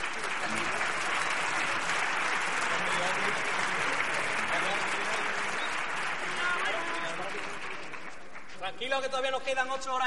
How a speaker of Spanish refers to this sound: Si tú quieres que te manden la sonrisa, solo tienes ahora que aplaudir.